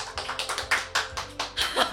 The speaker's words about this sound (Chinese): 谢谢大家，谢谢大家为小骆驼鼓掌。